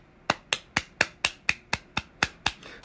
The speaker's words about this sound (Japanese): 全然拍手するような内容じゃないんですけどねまあまあ、しましたね。